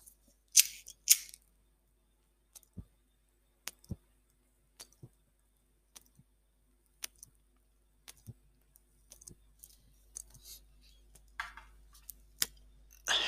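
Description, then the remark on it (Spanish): A lighter clicks repeatedly, irregular sharp snaps spread over several seconds, with a couple of brief hissy bursts near the start and no one speaking, as someone tries to relight a cigar that has gone out. “Espera, que se me ha apagado el puro.”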